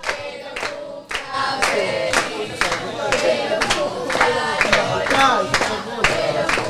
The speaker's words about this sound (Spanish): Fuerte el aplauso